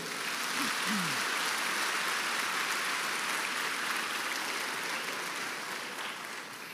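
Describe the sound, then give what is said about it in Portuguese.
An audience gives applause for Jesus, clapping together in a steady, dense wash of applause that holds at an even level for several seconds, then eases off slightly toward the end. “Dá um aplauso para Jesus aí.”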